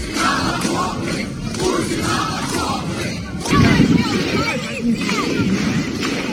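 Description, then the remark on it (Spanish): A large anti-war protest crowd of thousands in Russia, defying police, chants and shouts slogans such as "Putin to the trenches" and "no to war" in a loud, continuous roar of many voices, swelling louder for a moment around the middle before settling back into steady chanting. “Y en Rusia, miles de personas se han atrevido a desafiar a la policía y han gritado Putin a las trincheras y no a la guerra.”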